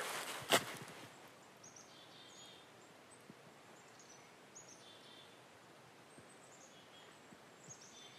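Two faint birds trade short high chirps back and forth over a hushed forest background with a little wind moving through the trees, with one soft rustle near the start and no voices.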